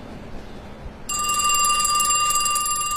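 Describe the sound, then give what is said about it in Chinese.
A telephone starts ringing about a second in, a bright, shrill electronic ring that holds steady and loud to the end over a low background hum. No one speaks. “电话声打断了李雪的思绪。”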